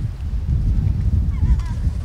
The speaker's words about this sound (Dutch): Ik heb hier nog nooit zoveel meeuwen op de pier gezien. Ik weet niet wat dit is.